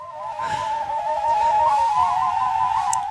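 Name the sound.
flute playing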